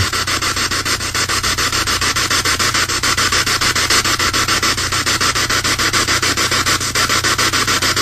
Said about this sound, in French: vous avez vraiment l'impression que c'est une réelle Ghost Box. Ça, j'aime beaucoup. Vous pouvez mettre la vitesse que vous voulez. Vous pouvez la mettre euh, dans un sens ou dans l'autre.